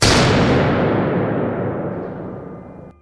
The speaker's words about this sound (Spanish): Cuando las sombras estaban muy cerca de la puerta de la habitación, la puerta se cierra de golpe.